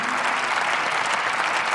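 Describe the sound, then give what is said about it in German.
A large group claps steadily in the German Bundestag, the dense, even applause sustained and fairly loud throughout, with no single voice standing out; the applause is for Jürgen Trittin after his last speech as a member of parliament. “und wir beginnen mit Applaus für einen, der geht.”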